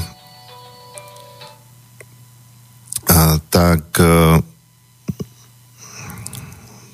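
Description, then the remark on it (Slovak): A mobile phone that the speaker forgot to switch off during a talk suddenly sounds three loud electronic tone bursts, followed by a couple of sharp clicks and soft rustling as the phone is handled and put into airplane mode. “ste možno počuli, som si teraz zabudol mobil vypnúť.”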